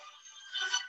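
A phone ringtone chirps briefly during a spoken talk, a short burst of bright electronic tones that swells slightly toward the end, heard faintly with no one speaking.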